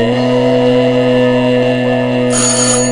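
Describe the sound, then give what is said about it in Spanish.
A loud electronic doorbell rings continuously, a steady sustained tone with strong harmonics filling the whole moment, insistent, with no voices present. “El ruido insistente del timbre la interrumpe.”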